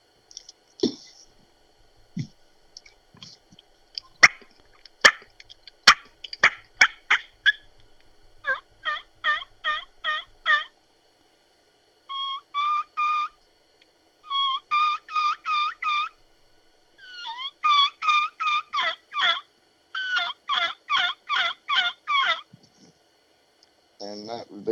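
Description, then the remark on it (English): A three-reed ghost cut mouth-blown turkey call plays a run of high, whistled kee-kee notes with whines, imitating a younger bird, then rapid rhythmic series of yelps in repeated bursts, loud with no talking over it. “This is the one where I like to throw in those key keys, those whistles with the whines. It's a higher pitch call.”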